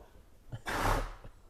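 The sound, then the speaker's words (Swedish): A single harsh, breathy cough bursts out, as if someone is clearing something caught in their throat, followed by quiet breathing. “Du satt i halsen va?”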